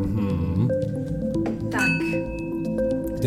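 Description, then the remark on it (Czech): A drinking glass rings with clear, sustained tones, struck a few times so the bright pitches overlap and linger over a dense, steady musical background. “nám tady zvoníš, koukám.”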